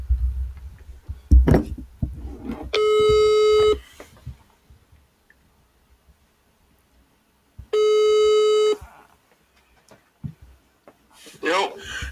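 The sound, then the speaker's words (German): Two long, steady electronic ringback tones from a mobile phone's speaker during a call, quiet, each about a second long with a pause between, with brief background voices and rustling around them. “Ich weiß nicht, warum mein Handy so leise ist.”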